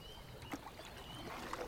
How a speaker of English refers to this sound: If you're lucky, the waves lapping up against the edge of the boat or the plop of water dripping off of your paddle are the only sounds you hear. It is a very serene experience.